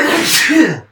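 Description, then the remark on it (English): A single loud sneeze bursts out with a sharp breathy blast and a voiced tail that trails off into silence within a second. “The oh, sneeze dear. that was heard around the world.”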